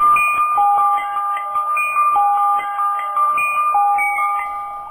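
A music box plinks out a lilting baião tune, bright metallic notes in a steady, bouncing rhythm with a faint background hiss and no voices.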